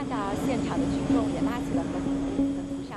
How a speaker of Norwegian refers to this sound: Et stort fly fra China Air ruller sakte fram mot en folkemengde som veiver med røde flagg.